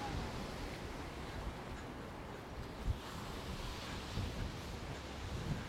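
A steady, loud roar of gale-force wind buffets the microphone on a seafront on a dark, wet day, with low gusty rumbles and the wash of surf underneath, no voices present.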